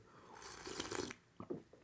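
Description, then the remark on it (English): An airy slurp of someone sipping coffee, lasting about half a second, followed by a couple of brief, softer mouth sounds; no talking. “Oh, sipping some coffee.”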